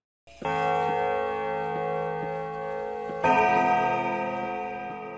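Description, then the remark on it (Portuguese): A bell is struck twice, its bright, sustained tone ringing out and swelling on the second strike, with a faint steady ticking underneath. No one speaks. “Toca o sino.”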